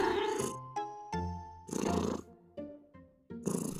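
Steady cat purring rising and falling in rhythmic breaths, alternating rough rumbling bursts with softer tonal stretches, with no talking over it.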